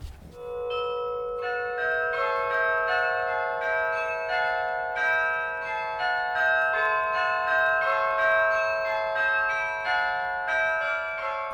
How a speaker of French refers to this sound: c'est un instrument à percussion euh, avec des grands marteaux sur des euh, grandes cloches en bronze qui sonnent pour toute une population